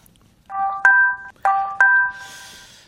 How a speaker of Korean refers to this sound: 자, 문자 도착음이에요. 띵동, 띵동.